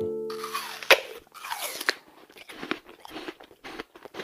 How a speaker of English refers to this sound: So, what do you think that sound was? It sounded to me like someone biting into a big red apple.